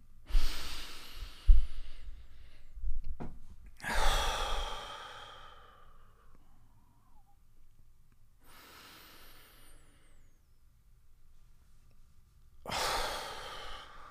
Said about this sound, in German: Okay, also setz dich hin, leg dich hin, mach's dir bequem und wie immer atmen wir erstmal zwei, drei, viermal tief gemeinsam ein und aus, um ein bisschen zur Ruhe zu kommen.